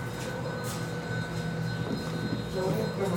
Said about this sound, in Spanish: Mientras la basura nos abandona. Mientras la basura nos deja. Mientras la basura nos deja. El reconfortante sonido de la basura.